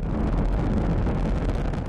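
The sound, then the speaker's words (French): A SpaceX rocket launch roar as it lifts off toward the International Space Station carrying the Crew Dragon capsule with four astronauts, including Thomas Pesquet: a deep, continuous rumble with rough, crackling texture, loud and steady throughout without any break or voices. “Dans un bruit assourdissant, la fusée de SpaceX s'est envolée vers la Station spatiale internationale avec notre Français Thomas Pesquet et ses trois collègues.”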